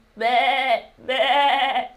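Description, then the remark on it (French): Two loud lamb bleats in quick succession, each a wavering, quavering cry lasting over half a second, separated by a brief pause, with no talking. “Le bébé, le petit mouton, c'est l'agneau.”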